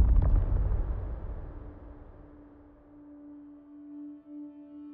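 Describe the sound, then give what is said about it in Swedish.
A heavy, low rumbling crash of falling rock inside a mine bursts out at once, then slowly fades into a drawn-out, hollow drone. No one speaks. “Det började vibrera i marken jag kunde höra stenar som brakade ner i marken bakom oss.”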